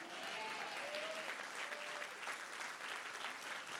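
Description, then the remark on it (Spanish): A crowd claps steadily, a dense wash of hand claps holding at an even level throughout, with a few faint vocal tones rising briefly within the applause. “Vamos a darle un aplauso más fuerte porque tus hijos serán olivos en la casa de Dios.”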